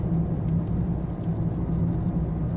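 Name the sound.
car interior engine rumble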